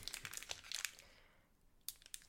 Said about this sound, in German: Und dann mache ich die Booster mal auf. Ich hoffe, es lohnt sich.